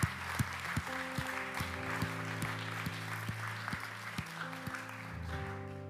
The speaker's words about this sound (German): Das ist ein großartiger Applaus.